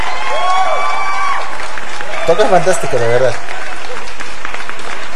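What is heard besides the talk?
audience applause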